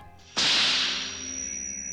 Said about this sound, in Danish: Og så lyden af laserkanonen. At når den tænder, så er det et piskesmæld.